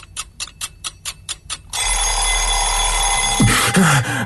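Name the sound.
alarm clock ringing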